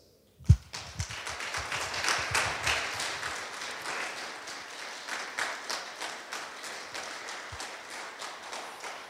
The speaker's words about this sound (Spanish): ¿Cuántos pueden darle un aplauso a Dios?